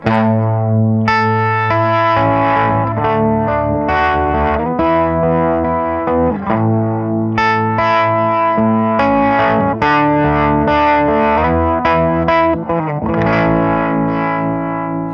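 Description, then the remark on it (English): A sine-wave synth tone run through a harmonic tremolo effect plays a steady sequence of sustained notes that shift pitch about every second, loud, with a buzzy harmonic-rich edge and no talking. “Let's try that with more of a, of a sine wave, just for fun.”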